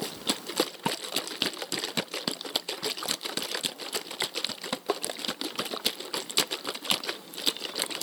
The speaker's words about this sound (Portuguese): Uma garrafa de plástico que eu coloquei ah. dois dedinhos de água e balancei aqui para vocês